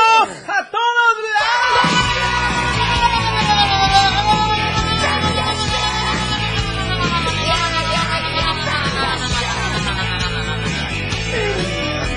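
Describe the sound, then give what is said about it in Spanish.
A radio host lets out a long, loud shout held for several seconds, the voice straining and wavering in pitch, with a busy, crowded background behind it. “Me salió el grito.”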